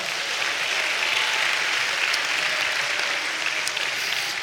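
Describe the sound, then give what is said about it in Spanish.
An audience applauds Christ steadily, a dense, even wash of many hands clapping at a constant loud level for several seconds with no voices standing out. “Ahora sí, dale un fuerte aplauso a Cristo, amado hermano.”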